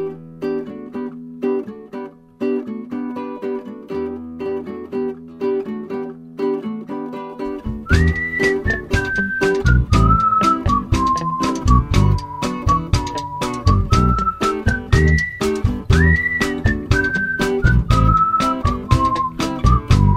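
A person whistles a clear, wavering melody over a full band arrangement, joining after a short instrumental intro and carrying the tune prominently in the mix.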